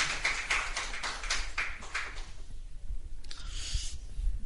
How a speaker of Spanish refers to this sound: Le levantas una fuente de aplausos al Señor, por favor.